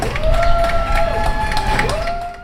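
People clap and cheer from their open windows at seven in the evening to show support for doctors and nurses, the applause steady and dense throughout, with sustained whistle-like tones ringing above it before it thins out at the end.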